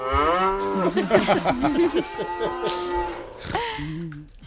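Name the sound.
cows mooing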